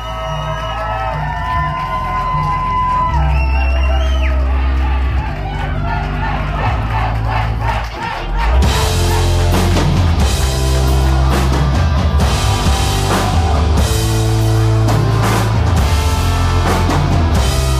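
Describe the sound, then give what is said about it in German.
A loud concert crowd, recorded on a smartphone at the concert, cheering and shouting over booming, bass-heavy music, continuous throughout, with a brief dip partway before the noise swells again even fuller and more energetic. “Überhaupt dieses Konzert, ähm, ich spiele da jetzt mal so eine kleine Szene ein. Ich habe nämlich ganz normal mit meinem Smartphone dann äh, die Stimmung aufgezeichnet.”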